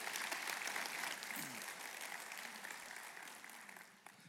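A church audience applauds steadily for a scripture reader, a dense wash of clapping from many hands that holds for a few seconds and then begins to thin and fade.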